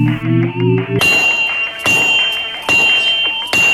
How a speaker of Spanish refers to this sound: con un martillazo de la forja